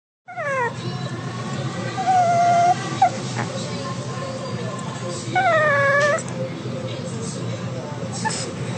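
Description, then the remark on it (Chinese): A small, tan Chihuahua named Bobo whimpers while seeking affection, giving several high, thin whines, some wavering and drawn out, that rise and fall in pitch over a steady low background hum. “好，那这一只狗狗呢，它的名字叫 Bobo，然后它是一只吉娃娃，我觉得是吉娃娃啦，就是土黄色的，然后小小只，然后舌头 always 在嘴巴的外面。”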